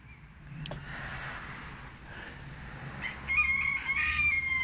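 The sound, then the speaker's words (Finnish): A rooster, one of six roosters in the middle of a small street, crows in a sharp, shrill, high-pitched voice, the call swelling louder and brighter toward the end, over a steady low rumble of background noise. “Sieltä se vielä kuuluu. Aika terävää ääninen kukka.”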